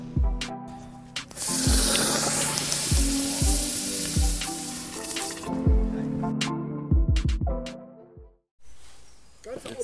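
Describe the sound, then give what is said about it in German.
Hot granite stones sizzle loudly in beer mash while brewing a stone beer (Steinbier), the whole mash being heated with the stones: a dense, steady hiss with crackling and bubbling, punctuated by repeated low thuds and knocks before the sizzle fades briefly near the end. “Wir brauen gerade ein Steinbier, sprich, wir machen die ganze Maische Führung mit heißen Granitsteinen.”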